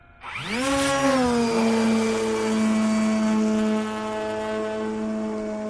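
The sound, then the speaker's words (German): Drone motors, started with a finger tap on a tablet, spin up with a rising whine that quickly settles into a steady, loud high-pitched buzz as the drone shoots vertically into the air like a rocket, holding constant with no voices. “startet die Motoren mit einem Fingertipp. Senkrecht wie eine Rakete schießt die Drohne in die Luft.”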